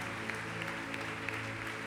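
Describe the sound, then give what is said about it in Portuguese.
A crowd applauds steadily, a dense wash of many hands clapping at an even loudness throughout, with a low sustained musical tone underneath. “Pessoal, vamos dar uma salva de palmas.”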